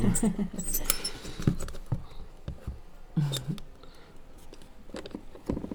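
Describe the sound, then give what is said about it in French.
A small plastic spring toy clicks and rattles in several quick bursts of tapping, springy noise, with brief murmured voices underneath. “C'est un petit jouet. Euh, C'est tout pourri ah, oui, c'est du plastique, du ressort.”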